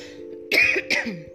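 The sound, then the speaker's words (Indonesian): Two quick, harsh coughs, one right after the other, with a faint steady hum underneath and no talking. “sorry batuk aku”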